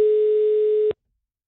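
A single steady telephone ringing tone during a call, a flat mid-pitched beep lasting just under a second before cutting off with a click into silence. No one speaks.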